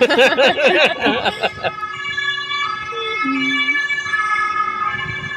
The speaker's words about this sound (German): Feuerwehr kommt.